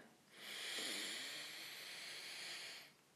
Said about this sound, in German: Wir können es mal jetzt zusammen machen. Einfach zwei Atemzüge. Ja, mach's mal mit mir mit. Schau mal, wie du dich fühlst. Und wir atmen ein.